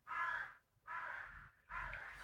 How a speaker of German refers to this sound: Hast du gehört? Da kräht was. Kra, kra, kra.